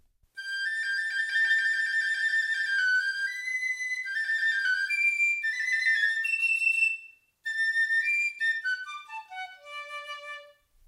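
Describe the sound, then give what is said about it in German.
A small flute plays a bright, high-pitched melody on its own, with sustained and quick notes, a brief pause partway, then a run of notes stepping downward to finish. “Was könnte das für ein Instrument sein? Ja, Flöte ist schon mal richtig, aber wir brauchen es noch genauer.”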